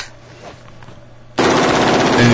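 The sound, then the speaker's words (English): A machine gun opens up abruptly after a quiet moment, firing a loud, rapid burst whose shots blur together into a harsh, continuous roar for about a second, with muzzle flash, brass casings spraying out and the gun smoking as its gas block heats up. “And look at that muzzle flash, dude. and there's the smoke they were talking about.”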